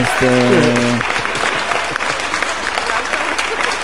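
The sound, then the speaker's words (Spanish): A steady burst of crowd applause played as a sound effect, dense and loud, claps blending into a continuous wash of noise throughout, with a man's voice speaking briefly at the very start. “Puse los aplausos.”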